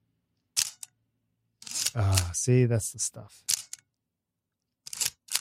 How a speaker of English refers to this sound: Wait, no, this is all mechanical. This is I'm, an old. F. I grabbed my F two. Yeah, that one would be mechanical. F two. Pretty sure. Yeah. This is what a shutter sounds like, kids.